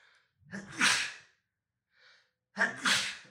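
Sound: sneeze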